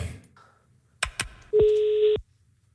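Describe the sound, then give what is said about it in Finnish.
A couple of quick clicks, then a steady electronic phone-line tone holds for about half a second before cutting off, like the line connecting as a call is placed to a helpline for seasonal winter depression. “No kokeillaanko, so, kokeillaanko soittaa?”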